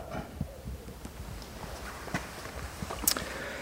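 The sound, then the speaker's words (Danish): Noctule bat echolocation calls heard through a bat detector as irregular, hollow clicking plops, some louder than others, spread over a steady hiss with no one talking. “Øh, jeg vil lige prøve at finde en, en brun flagmus, bare for at I kan høre, hvor stor forskel der er.”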